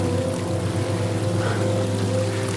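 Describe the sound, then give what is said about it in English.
Steady rushing of flowing stream water, continuous and fairly loud, with a low droning hum running underneath throughout; no one speaks. “Beautiful stream. awesome rocks.”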